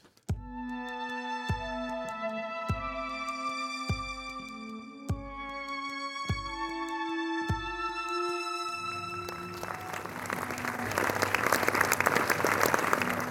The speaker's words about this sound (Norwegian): Ja, Under filmfestivalen i Tromsø så applauderes det når publikum er fornøyd med en film. Og dette var en eh, stor applaus som kom spontant for Egil Hårsjå Larsens film 'Hvor man vender tilbake'. Den var åpningsfilm på filmfestivalen i Tromsø.